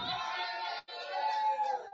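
A Colborough audience shouts "good morning" back to a speaker in unison, a loud burst of many voices that breaks off briefly and then surges again, sustained and cheering.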